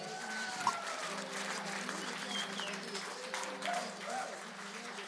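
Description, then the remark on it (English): An audience applauds for Jesus in a steady, dense wash of clapping that holds for several seconds, with cheering voices and a held musical tone sounding underneath. “Give it up for Jesus one more time, somebody.”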